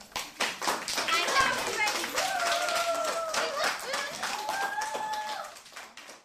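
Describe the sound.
An audience stands and applauds steadily at the end of an architect's presentation attended by the mayor of Salzburg, a dense patter of many hands clapping for several seconds while voices call out and cheer over the top, fading slightly toward the end.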